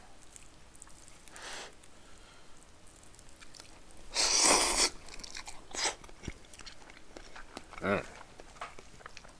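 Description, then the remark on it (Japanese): Someone eats cup instant chicken ramen noodles: irregular crunchy, wet chewing and slurping bursts, one loud rush in the middle, with a brief murmured voice. “チキン鍋ーメうまいよなんか淡白な気がすんだよねこのカップのやつなんかあの袋麺のやつの方がさもっと味が濃いと思うんだよな”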